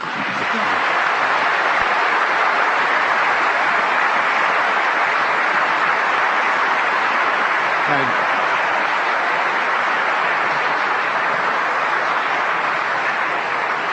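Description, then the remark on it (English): Steady, sustained applause from an audience thanking four panelists at a panel event, lasting about fourteen seconds, a dense wash of many hands clapping at an even, fairly loud level with no one speaking over it. “But I hope you will join me in thanking our four panelists for their”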